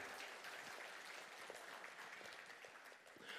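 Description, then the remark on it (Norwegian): A crowd claps for the actors, a dense, even patter of many hands lasting several seconds without letting up. “Vi klapper for flotte skuespillere.”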